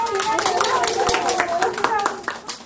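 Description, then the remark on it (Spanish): A group of doctors and nurses claps steadily and continuously to send off a two-year-old girl, the applause lively, with voices talking and calling out over it, including what sounds like a child. “Médicos y enfermeras la despiden entre aplausos.”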